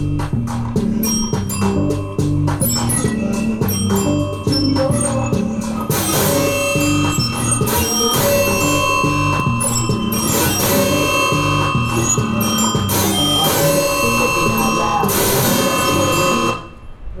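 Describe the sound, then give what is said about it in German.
Loud bells ring continuously, their overlapping tones layering into a dense, resonant peal that swells with fresh strikes about a third of the way in and keeps sounding until near the end. “ist das für ein Glockenläuten?”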